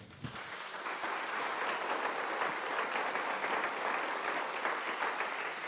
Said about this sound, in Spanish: Denle un aplauso a Dios.